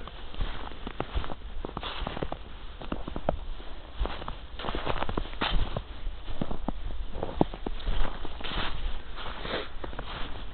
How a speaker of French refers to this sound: je pense que vous allez l'entendre si je me rapproche un peu avec le micro de mes c'est le bruit que font nos pas dans la neige. Le petit crissement là, je trouve ça vraiment sympa et agréable.